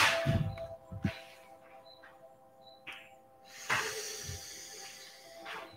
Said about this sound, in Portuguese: Respire essa respiração livre e essa respiração ela invade todas as suas células, flui em todas as suas células.